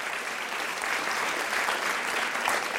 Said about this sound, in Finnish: Hei, voidaanko me antaa meidän bändille isot aplodit? Come on! Come on! Fire!